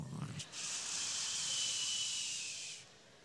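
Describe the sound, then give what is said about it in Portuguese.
A voice imitates the whistling snore of someone falling asleep right after saying good night in bed: a brief low vocal sound, then a long, steady, breathy high-pitched hiss lasting about two seconds before fading out. “O noite já sai no assovio do ronco já.”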